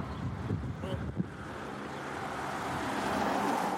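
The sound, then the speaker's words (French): Steady rumbling road and engine noise from inside a moving bus after leaving a Côtes-du-Rhône wine estate, growing slightly louder over a few seconds, with faint indistinct voices murmuring near the start. “J'ai repris mon bus avec des bouteilles sous le bras.”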